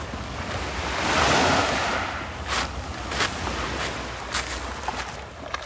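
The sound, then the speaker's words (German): Waves wash in on a shore, one broad swell rising and fading early, followed by smaller bursts of surf and steady background rush, with wind noise and no voices. “wenn du die Tür aufmachst und direkt beim Meer stehst und weißt, du kannst jetzt mal schwimmen, ohne großartig irgendwelche Wege zurückzulegen, ist es äh, perfekt.”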